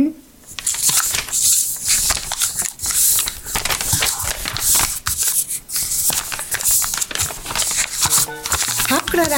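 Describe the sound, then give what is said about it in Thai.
Continuous crinkling and rustling of paper being handled and folded into paper airplanes, with sharp crackles and creases throughout and a brief voice near the end. “มาพับเรือบินกันพับกระดาษ”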